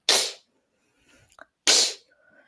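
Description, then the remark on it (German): A beatboxer performs two loud inward K snares, each a sharp, breathy hiss of sucked-in air, separated by a pause with a few faint mouth clicks. “So, dann, ähm, der dritte Ton ist die Inward Case snare”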